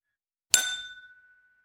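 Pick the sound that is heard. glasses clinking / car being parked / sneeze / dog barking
glasses clinking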